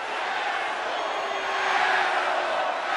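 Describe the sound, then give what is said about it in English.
A capacity crowd at a World Wrestling Federation arena cheers and roars in a dense, continuous wash of noise, swelling slightly louder midway through before holding steady for about three seconds. “Austin, if you ever coming to a World Wrestling Federation arena again, then you'll do so just like this capacity crowd.”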